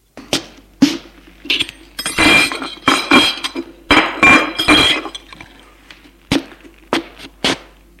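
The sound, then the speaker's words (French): Dishes and glassware clink and clatter as a man clears the table after dinner, with sharp irregular knocks and a few rattling bursts of crockery stacking over several seconds, no voices. “avoir dîné, il débarrasse la table,”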